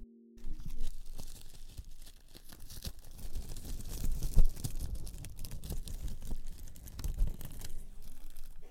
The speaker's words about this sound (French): Alors là, on vient d'entendre un bruit de je viens d'ouvrir un pli dans lequel il y a des diamants et nous venons de choisir les trois pierres qui vont se poser sur la bas que nous sommes en train de fabriquer. Les plis sont en papier.